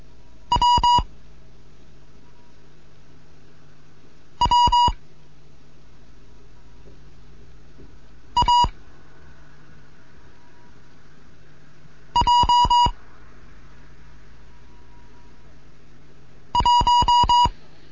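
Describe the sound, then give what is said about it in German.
Five short bursts of Morse code beeps sending numbers in the ninth lesson of a Morse code course, each a quick cluster of clipped, mid-pitched tones, spaced a few seconds apart over a steady low hum and faint hiss. No one speaks. “hier ist Degat 1 Kilo November mit einem Morseunterricht, neunte Lektion. Ich gebe jetzt Zahlen.”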